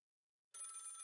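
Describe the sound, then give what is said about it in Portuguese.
A telephone bell starts ringing abruptly after a moment of silence, a bright, steady, loud trill without any voices, before a man answers it. “De repente, o telefone tocou e ele atendeu.”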